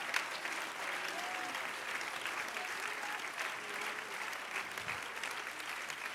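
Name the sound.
audience clapping hands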